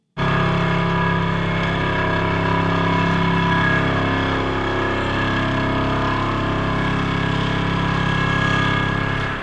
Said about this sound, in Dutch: En wie een tunnel wil bouwen, moet damwanden intrillen. Wat damwanden zijn en hoe dat intrillen werkt, dat hoor je later. Eerst laat ik je horen hoe het klinkt.